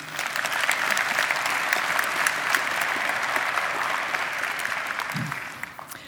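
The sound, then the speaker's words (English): Sustained applause from a church audience clapping for themselves, many hands clapping in a dense, steady patter that holds at an even level for about six seconds before tapering off slightly at the end. “You did clap for yourself just then, and that's rude.”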